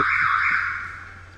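A loud, shrill alarm blares continuously with a steady piercing tone, holding without pause and easing only slightly in volume toward the end. No voices are heard.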